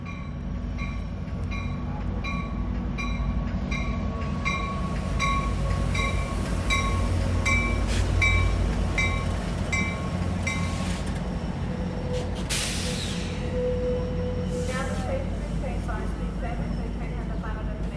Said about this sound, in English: At this moment, a BNSF double diesel combination is going through the station. No freight cars, just the locomotives.